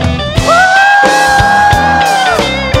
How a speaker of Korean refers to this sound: 우리 하나님 앞에 애정의 사랑의 함성을 한번 드려볼까요 시작